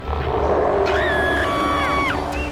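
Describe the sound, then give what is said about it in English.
A dragon roar sound effect in an advertisement for the Adventures in Odyssey Bible: a loud, rumbling growl that rises into shrill, wavering screeches lasting a couple of seconds, with no voices. “And even a dragon.”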